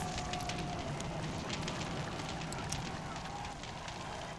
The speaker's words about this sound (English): Two of the cool king's servants ran forward and lit the enormous bonfire that had been built directly beneath the enormous wooden rocket, and the crowd cheered as they waited for liftoff.